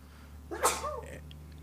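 A single sharp sneeze bursts out partway through, brief and fairly loud against a steady low hum, followed by a faint trailing breath. No one speaks.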